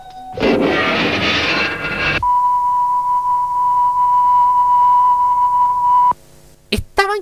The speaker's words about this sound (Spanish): Y loco, había que necesariamente poner un pito en la carta de ajuste.